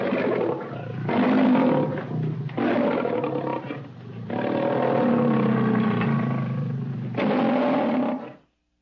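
A lion roars loudly in several long, rumbling bursts with brief pauses between them, deep and growling throughout.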